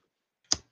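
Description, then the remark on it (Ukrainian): A single sharp click of a toggle switch being flipped, crisp, with a short decaying tail, then quiet. No one speaks. “всі всі рефлекторно чують оцей оцей, оцей клац”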